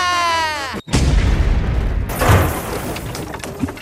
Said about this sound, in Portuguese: Aí vai bomba!